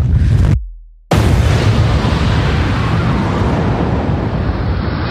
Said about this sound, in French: C'était un complexe industriel. Il n'en reste plus rien. 10h20 ce matin, une explosion gigantesque dévaste l'usine pétrochimique AZF. Une usine qui produit des engrais à la périphérie de Toulouse.